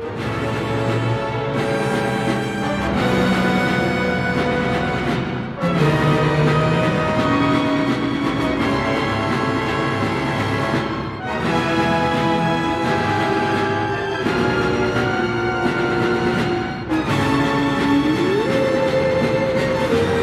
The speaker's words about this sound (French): Alors tout cela fait très envie car Hadès est l'un des très grands compositeurs d'opéra d'aujourd'hui. On écoute un extrait symphonique.